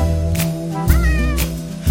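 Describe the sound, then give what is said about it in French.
A few drawn-out cat meows with rising and falling pitch ring out over a steady, sustained musical backing, loud, like part of a song. “Tout le monde sait faire miaou. Des beaux miaou.”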